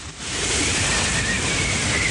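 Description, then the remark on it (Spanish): A sandstorm roars in as a dense, hissing rush of wind that swells within the first moment and then holds loud and steady, like crashing surf, with no voices. “Una tormenta de arena se acerca a él. Es como una gran ola que avanza sepultando todo lo que encuentra a su paso.”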